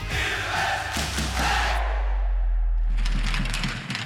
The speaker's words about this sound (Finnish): Varhaillaan aplodeja annetaan kisapuiston jäällä. Se johtuu siitä, että Saipan kuukauden juniori